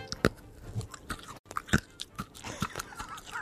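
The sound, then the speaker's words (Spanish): Hard candy is crunched between the molars, with sharp cracking bites at irregular intervals and a brief silent pause, then softer grinding crunches; no talking. “No, muerdo con la muela. Escuchen, ¿eh?”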